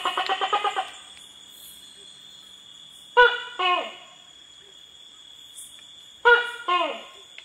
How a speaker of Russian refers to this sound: я дал вам послушать тайное кряканье такой ящерицы. Это геккон токи. Они издают такие резкие звуки, поэтому их называют токи.